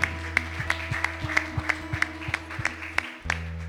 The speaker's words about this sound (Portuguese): Podemos aplaudir a esse Deus, aleluia.